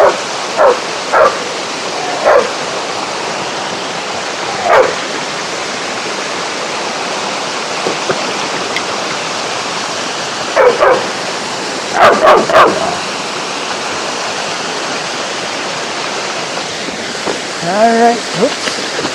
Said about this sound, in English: He doesn't like it when we stop. Always wants to keep moving. So if we stop anywhere, starts to bark, scream and cry.